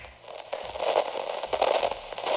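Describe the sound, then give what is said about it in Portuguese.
Dense radio static crackles steadily for a couple of seconds between radio messages, a broad hiss with irregular popping bursts, moderately loud and with no voices. “Ai, gente, algum intervalo de estática após isso e novamente a mensagem.”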